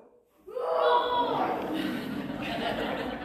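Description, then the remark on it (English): A group of children let out a loud, sustained roaring shout, imitating a lion. It bursts in suddenly after a brief pause and carries on noisily for a few seconds. “Kids, are you listening out there today? G- give me a roar.”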